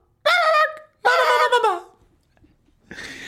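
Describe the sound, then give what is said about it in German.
A person imitates a high, chirpy chick-like dinosaur call twice, the second cry longer and sliding downward, then a brief burst of noise follows. “Und die wahrscheinlich auch nicht so furchteinflößend gerohrt haben wie so ein Löwe, sondern halt eher wie ein Küken. Recht hoch.”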